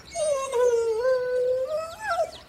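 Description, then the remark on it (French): A dog, Snoopy, trying to eat the butterflies in the garden, lets out one long, drawn-out whine, its pitch sagging and then rising again near the end, with no one talking. “Snoopy, enfin, tu as un chien, tu ne manges pas les papillons.”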